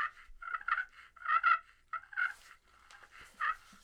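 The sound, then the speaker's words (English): A glass turkey pot call worked in a soft, rolling purr: a continuous fluttering trill that swells and eases in uneven pulses, with no one talking. “This is my first glass, so I'm excited about this. Yep. So a little sound difference here. I like this. Uh, this purr.”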